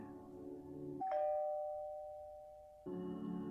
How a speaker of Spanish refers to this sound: justo después de tocar el timbre